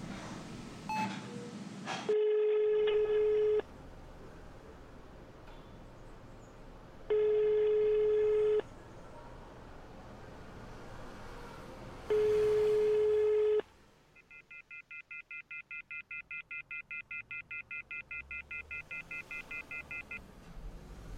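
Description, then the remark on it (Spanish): Phone tones after a dropped call: three long, steady electronic tones at even intervals, followed by a rapid run of high, fast-pulsing beeps that continues to the end. No one speaks. “se cayó la llamada.”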